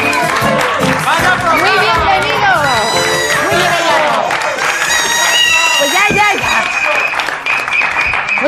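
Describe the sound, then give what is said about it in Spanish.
A studio audience at the live broadcast of the new programme ¿Qué me dices? cheers and applauds loudly and continuously, with many voices whooping and shouting over dense clapping that holds steady for several seconds. “Muchas gracias por esos ánimos y esos aplausos.”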